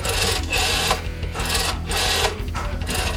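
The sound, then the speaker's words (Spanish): A rotary telephone dial is turned and whirs back several times in quick succession, a steady mechanical rasping that swells and dips in short surges with no voices. “También pasamos de, a ver, el teclado, que era un, un disco, de ahí viene discar”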